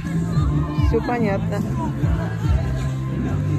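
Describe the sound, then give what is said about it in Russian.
A steady outdoor crowd hubbub at an ice rink, with overlapping voices, some high and childlike, filling the background while a person speaks briefly over the continuous chatter. “А, это каток.”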